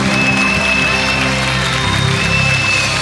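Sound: audience clapping hands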